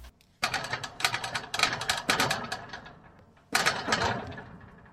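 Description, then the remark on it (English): A voice imitates a small, non-electric metal gate with a lock being shaken: rapid, clattering bursts that shake on for about three seconds, pause briefly, then start again loudly and fade toward the end. “But not five minutes later, all we heard was the gate doing this.”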